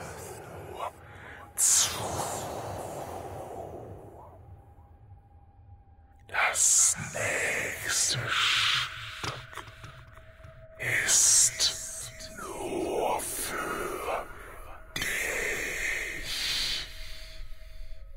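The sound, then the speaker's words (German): A dense murmur of dozens to hundreds of overlapping whispering voices coming from a loudspeaker, breathy and unintelligible, rising in hissing, wind-like surges over a faint steady tone, with short gasps and snorting breaths scattered throughout. “Es ist nicht nur ein weißes Rauschen, sondern Dutzende, Hunderte von Stimmen, die unverständlich übereinander flüstern.”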